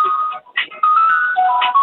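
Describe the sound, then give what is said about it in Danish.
A second phone rings with a melodic electronic ringtone, a bright sequence of high, steady tones that rises and falls in a short tune, fairly loud with brief gaps between phrases. “Og nu ringer den anden.”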